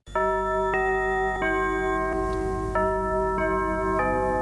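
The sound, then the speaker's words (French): The very first chime jingle of the radio station Europe 1, composed in 1955 by jazz bandleader Raymond Lefebvre: a sequence of bright, bell-like tones struck one after another in a steady melodic pattern, each ringing into the next, clear with no voices. “Oui, c'est un chef d'orchestre de jazz, Raymond Lefebvre, qui compose le carillon d'Europe numéro 1 en 1955.”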